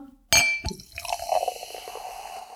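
A sharp glassy clink, then sparkling wine (Sekt) pours into a glass, a steady fizzing, bubbling stream lasting a couple of seconds with no one talking.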